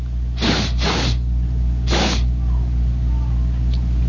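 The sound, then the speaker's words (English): Three loud, breathy sniffs of the air: two quick ones in a row, then a third after a short pause, over a steady low hum with no talking. “I'm I'm sniffing the air. I'm like a great caged jungle beast.”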